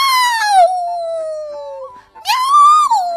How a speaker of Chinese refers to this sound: 威尔伯可笑不出来。雨水顺着他的胡须不停的往下滴。喵喵！他大声叫道：“喵